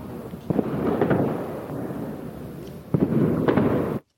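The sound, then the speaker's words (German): Firecrackers go off outdoors in repeated sharp bangs, a cluster early on and another burst near the end, over a constant rumbling wash of explosions. “Äh, naja, die ganzen Böller und hm. Störgeräusche drumherum.”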